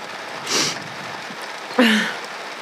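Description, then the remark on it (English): Heavy rain pours down in a steady, dense hiss throughout, broken twice by short, breathy bursts that sound like a gasp and a sigh. “It's raining really hard.”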